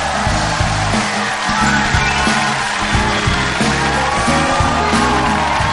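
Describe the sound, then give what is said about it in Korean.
A large audience claps and cheers steadily for several seconds, sending applause and cheers to the people beside them, a dense, loud wash of applause with whoops and shouts mixed in and a low rumbling undertone throughout. “그런 걸 저한테만 하시지 마시고 뜨거운 박수와 환호를 옆 사람에게 한번 보내주시기 바랍니다.”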